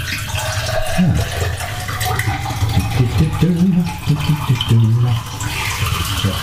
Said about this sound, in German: Werde jetzt erstmal das nette, wunderbare Glas ausspülen und mir dann einen Standardkaffee machen.